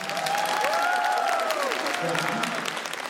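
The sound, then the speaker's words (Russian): An audience at a live event hosted by Lendok applauds in a dense, steady burst of clapping that holds for the whole stretch, with a few voices whooping and cheering over the hands. “И раз уж э, мы так хорошо хлопаем, давайте еще разок похлопаем всем вам.”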